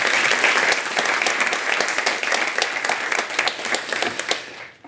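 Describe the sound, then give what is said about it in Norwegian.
An audience applauds steadily as Chief of Defence General Eirik Kristoffersen is welcomed: a dense wash of many overlapping hand claps at an even loudness, then the clapping thins out and fades to quiet at the very end. No one speaks. “Da eh, klapper for han òg, ja.”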